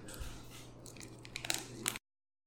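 A soft bite into a pineapple cake during a taste test, followed by moist chewing and small crunching sounds with a few sharper crackles toward the end, under a low steady hum. No one speaks.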